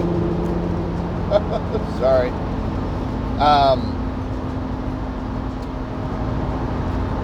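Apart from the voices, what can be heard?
loud truck passing by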